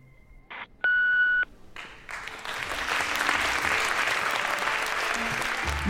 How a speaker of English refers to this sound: And remember, leave your message after the beep.